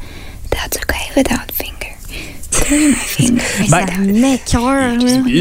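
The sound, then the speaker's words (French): Breathy whispering with crisp mouth clicks and taps, in an intimate ASMR style, then giving way to a louder voiced speaking tone with gliding pitch for the last half. “Puis il y a plusieurs personnes qui s'en servent de la SMR pour s'endormir.”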